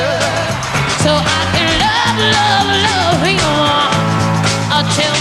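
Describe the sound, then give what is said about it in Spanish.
Loud rock music from a live concert, one of a series of 32 concerts: a full band with driving bass and a female singer's voice carrying the melody, playing continuously throughout. “Eh, a ver, este es uno de los 32 conciertos.”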